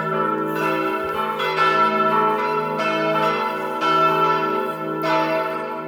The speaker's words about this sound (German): Die Glocken der Kirche in Laggenbeck, St. Maria Magdalena, hören Sie heute.